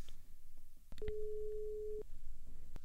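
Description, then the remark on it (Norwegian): A single steady ringback tone from an outgoing phone call to a club doctor sounds for about one second, moderately loud, over faint background noise and a few soft clicks. “Vi ringer klubblege Magne Krohn.”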